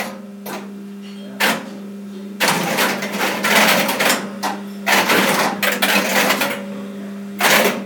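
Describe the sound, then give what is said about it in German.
Dense bursts of rapid mechanical clicking and clattering, like many relays switching in quick succession, come in several loud waves over a steady low electrical hum, with no talking. “das sind dann viele Relais, die ganz schnell hintereinander schalten.”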